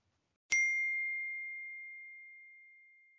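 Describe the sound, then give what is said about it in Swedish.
A single bright clink of glasses in a toast, leaving a clear, high ringing tone that slowly fades away over a few seconds. No one speaks. “Eh, ah, vi tar en skål på den.”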